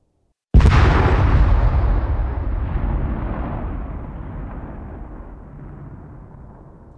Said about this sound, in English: And then they have a distance element for the same uh, explosion.